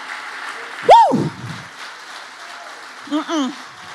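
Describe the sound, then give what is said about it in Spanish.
A crowd claps in a steady, dense wash of applause lasting the whole stretch, with a sharp rising whoop early on and a few wavering shouts near the end. “Yo quiero que todo el que sabe aquí quién es, que le dé un aplauso fuerte.”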